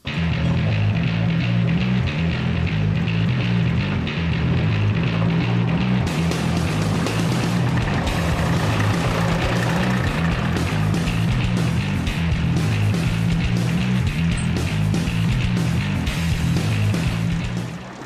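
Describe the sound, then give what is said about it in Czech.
A small BND 30 mining train, pulling cars once used to carry miners, rumbles steadily along rails at the Mining Museum in Krásno, Karlovy Vary Region: a loud continuous engine drone with a low pulsing hum and constant rattling, clattering noise throughout, with no talking. “Je to důlní vláček, eh, důlní vláček BND 30 eh, spolu s vozy, ve kterých se vozilo mužstvo.”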